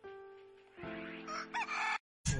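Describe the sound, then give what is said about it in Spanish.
A rooster crows loudly, a long harmonic cock-a-doodle-doo rising and wavering for about two seconds, then cutting off before a brief final burst. “gallo!”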